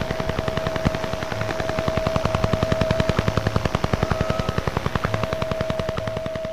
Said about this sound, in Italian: È il suono del picchio, o meglio, del Duga 3, un sistema radar a lungo raggio in funzione dal 76 all'89, che produceva un segnale radio ad onde corte e questo dava un battimento da una frequenza di 10 Hz. E da lì quindi il nome picchio, giusto?